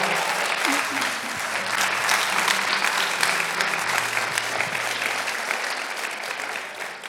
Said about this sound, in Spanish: Si tú lo crees, dale ese aplauso fuerte al Señor.